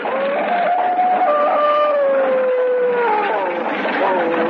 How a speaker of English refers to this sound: It flashed through the town and up the road leading to the castle, and in the back of it, the devil dogs ran, snarling and howling.